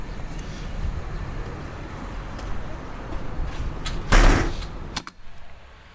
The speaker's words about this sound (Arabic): ممكن اقفل الباب بقى ساعتها ولا مش فارق ماشي اتفضل